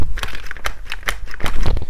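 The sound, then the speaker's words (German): A small, cute-looking toy jeep with real spring suspension, a motorized car with steering and forward-reverse motor control, creaks as it is pressed down repeatedly by hand: a run of short, dry, crinkly plastic creaks in an uneven rhythm, fairly loud, with no voices. “knarzt so ein bisschen, aber es federt auch.”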